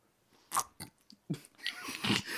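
Wet lip smacking and chewing noises, a few sharp smacks followed by a denser stretch of mouth sounds, with no talking.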